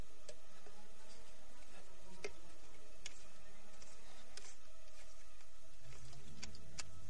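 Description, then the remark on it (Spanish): The metal cap of a hip flask is slowly unscrewed by a young man, giving off small, sparse clicks and ticks at uneven intervals. The sounds are quiet, with no voices. “Mientras, el asustado joven coge la petaca y comienza a abrirla muy lentamente.”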